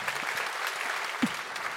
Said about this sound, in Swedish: ge en applåd.